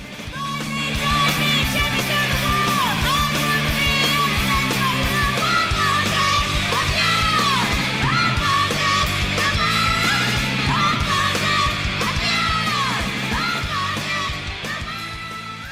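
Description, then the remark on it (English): A loud, dense punk rock track blasts throughout, with distorted guitars driving a fast steady rhythm and a raw vocal shouting over the top. “there's no way to listen to that song and not be angry happy thrilled excited it just is one of those rare pieces of music that instantly pushes a button”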